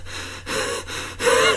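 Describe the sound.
A voice imitates frightened, heavy gasping breaths, the way a film character breathes when an alien is there: three quick, noisy breaths in rapid succession, fairly loud, the last one the strongest, with no talking.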